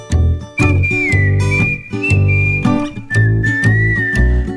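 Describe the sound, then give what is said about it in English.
Someone whistles a clear, sustained tune over a steady backing of rhythmic music, the whistled melody gliding between held notes for several seconds. “I think maybe he's gonna be a professional whistler someday.”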